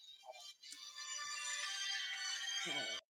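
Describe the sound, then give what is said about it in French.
Someone's phone ringtone goes off during a recorded interview, playing a sustained, bright electronic melody for about two seconds, heard faintly before cutting off abruptly; no speech is heard. “Alors, moi, j'avais une question quand je ne sais pas qui aura répondu à son téléphone,”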